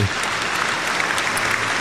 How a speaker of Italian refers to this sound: Applausi.